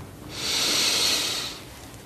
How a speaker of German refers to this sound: Wir nehmen gemeinsam einen tiefen Atemzug und atmen ein